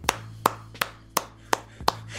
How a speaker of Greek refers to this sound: Μόνος μου θα χειροκροτώ. Πάμε λίγο όλοι.